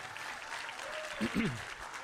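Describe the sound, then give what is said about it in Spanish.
An audience applauds the Lord in a steady, dense wash of clapping that fills the whole moment, with a voice briefly calling out over the applause partway through. “Si tú lo crees, dale un aplauso lleno de fe al Señor.”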